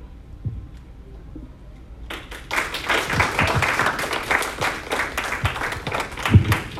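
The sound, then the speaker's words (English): After a brief quiet stretch, an audience breaks into applause: many hands clapping in a dense, irregular patter that holds steady at moderate loudness, with a few sharper claps near the end. “They don't like you you tell who likes you by your clap.”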